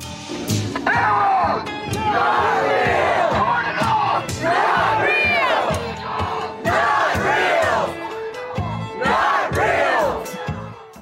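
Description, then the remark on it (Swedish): A large crowd of protesters demonstrating outside Twitter's headquarters shouts and chants together, many raised voices overlapping in loud, surging waves that rise and fall every couple of seconds, with occasional dull thumps underneath. “så nu är de utanför Twitters högkvarter och, och demonstrerar”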